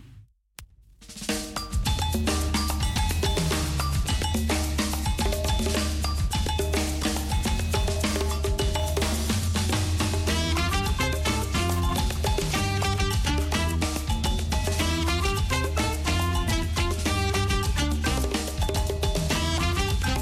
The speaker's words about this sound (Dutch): Dus eh, we luisteren naar een eh, kinder, kinderlied.